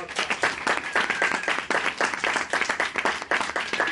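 An audience gives another loud round of applause, many hands clapping in a dense, continuous patter that stays loud throughout, with a faint high whistle rising briefly above the claps.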